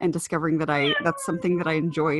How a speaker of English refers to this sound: What's happening? Yep, that's that's my cat.